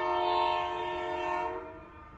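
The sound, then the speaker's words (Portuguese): A loud train horn sounds one long sustained blast over the low rumble of a moving train, then cuts off abruptly, leaving the rolling rumble underneath. “E novamente o nosso trem do forró virtual vai seguir viagem.”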